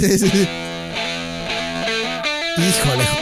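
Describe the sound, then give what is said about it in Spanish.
A recorded song plays at steady, fairly loud volume, with a sustained melodic voice or lead line shifting between held notes over a dense, slightly distorted band sound. “Esta rola que vamos a escuchar es la más conocida.”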